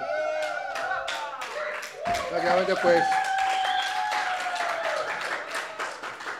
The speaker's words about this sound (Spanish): El público te aclama, ¿eh? Y no es porque les hayamos puesto que aplaudan, ¿no?